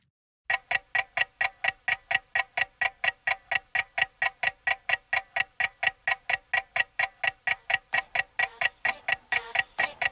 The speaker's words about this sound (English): in that that starts with that same ticking clock